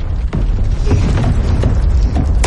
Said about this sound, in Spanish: Se producen varias explosiones bajo la superficie. Los túneles se derrumban.